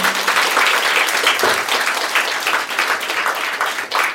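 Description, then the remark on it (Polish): An audience applauds a guest at the end of a meeting, steadily, a dense wash of many hands clapping with no pauses, sustained at an even loudness throughout. “Brawa dla, dla gościa.”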